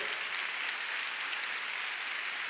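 A crowd applauds to give God a big clap, many hands clapping in a dense, even wash of bright noise that holds at a constant level throughout, with no voices standing out.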